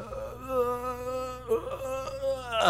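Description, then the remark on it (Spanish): A man imitates how he screams in his sleep during frightening dreams: a drawn-out, wavering moan like a sleeper's muffled scream, sustained for nearly three seconds and rising into a brief strained cry at the end. “un sonido así que hace un, un huevón que está dormido, pero y los asustas a todos a tu alrededor, pero en mi jato ya están acostumbrados.”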